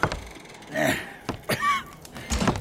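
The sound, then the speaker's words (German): A stubborn door being opened with some effort: a few dull thumps and rattles, a short high creak in the middle, then a final heavy knock, with no talking. “Geh schon auf, vermaledeite Tür.”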